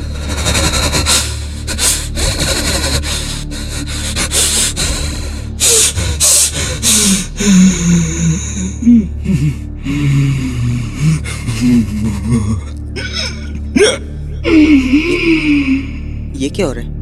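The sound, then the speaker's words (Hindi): Rapid, heavy gasping breaths from someone who suddenly turns abnormal during a recording take, in a ragged, repeated rhythm, loud, with strained voiced sounds and a gasp or two breaking through, steady background noise underneath. “और तभी अचानक वो बहुत एबनॉर्मल से हो गए सांसें तेज तेज चलने लगी ये ये आखिर हो क्या रहा था इन्हें और तभी उनकी आवाज को न जाने क्या हो गया”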